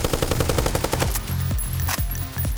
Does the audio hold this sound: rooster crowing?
no